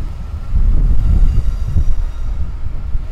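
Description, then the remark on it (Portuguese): A steady, deep rumble fills the inside of a crowded, moving passenger train in England on a holiday, with many people standing, a continuous low roar and faint rattling throughout and no clear voices standing out. “Então, como a gente já tinha comentado uh, e uh, como o cara acabou de anunciar aqui no trem uh, também, uma das linhas principais para o norte da Inglaterra é fechada nesse feriado, então realmente caótico aqui no trem, muita gente em pé, sem lugar.”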